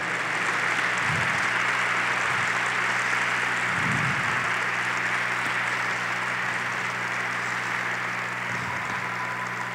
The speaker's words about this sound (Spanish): Dale un fuerte aplauso al Rey. Dale un fuerte aplauso al Señor.